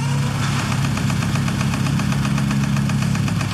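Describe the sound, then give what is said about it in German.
A heavy engine of construction machinery at a construction site idles steadily with a low, rumbling drone and a faint regular knocking pulse, running without pause. No voices are heard. “Eine Baustelle.”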